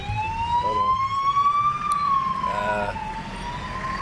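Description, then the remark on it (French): An ambulance siren wails steadily on a road in N'Djamena, its tone slowly rising and falling over road rumble, with a brief hesitant voice in the middle. “Non, c'est une ambulance.”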